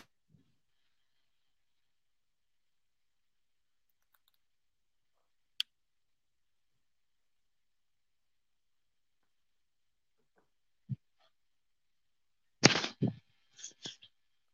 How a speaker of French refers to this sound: Ouais, mais ton micro est fermé, euh, selon moi. Euh. Euh, le, son, a eu un petit bug, excusez-nous. on a eu un petit problème.